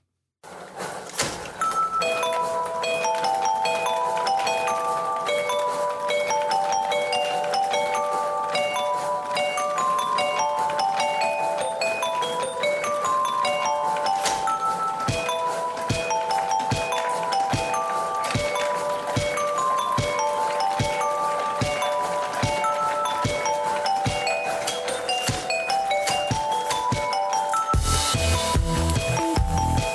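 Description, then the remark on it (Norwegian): A bright, catchy tune plays steadily with chiming bell-like notes over a percussive rhythm, continuous and fairly loud, ending with a brief burst of noise near the end. “Eller, og hvis du ikke skjønner hva vi snakker om, så er det kanskje musikken her nå eh, ringer ei bjelle, bokstavelig talt.”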